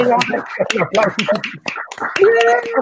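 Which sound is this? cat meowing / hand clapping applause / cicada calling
hand clapping applause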